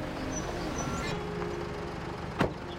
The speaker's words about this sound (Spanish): Doña Inés sale al balcón, respondiendo al sonido del auto que acaba de llegar a la propiedad.